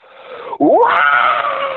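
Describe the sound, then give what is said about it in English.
A person vocally imitates a chimpanzee scream: a brief low dip, then a loud, shrill, wavering screech held for about a second. “Uh, or you know, actually, you know, it, I guess it would have sounded like a like when you hear a chimpanzee scream on TV, same sound”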